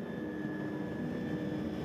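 A steady helicopter engine drone with a low rumbling texture and a constant tonal whine. The helicopter flies slowly around in the air over Bodø, searching for the best place to build a data center. Continuous and fairly even in loudness, no voices.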